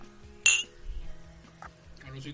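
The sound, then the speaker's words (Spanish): Glasses clink together once in a toast of "salud" at the start of a conversation. A bright, ringing, sharp high chime fades quickly, followed by softer clatter and a low background murmur. “pero antes de empezar así nuevamente salud, ¿no?”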